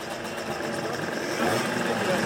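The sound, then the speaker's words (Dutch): A Vespa scooter engine runs at a steady idle, a continuous buzzing drone with a faint rattle, while muffled voices murmur in the background. “vertelt later dat haar man een Vespa-scooter ging rijden.”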